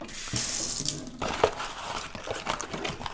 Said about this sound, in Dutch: Het is geen koeker. Het is een heet waterkraan van Groen. En hij is vol. Ik stop hem. Ja! Maar hij stopt wel met druppelen altijd als ik hem uitzet.